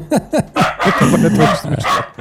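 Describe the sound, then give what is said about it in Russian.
A small, purebred chihuahua of rare coloring barks several times in quick succession, loud, with sharp yappy barks breaking into a more continuous excited barking run. “О, я, я, я спровоцировал собаку на погавкать.”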